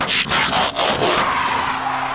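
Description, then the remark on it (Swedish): A loud tire skid and screech fills the moment, with harsh bursts of noise and a sustained squealing tone, like a car abruptly materializing and sliding to a stop, as a horse is transformed back into a car by pressing a button on the saddle. “Becoming car.”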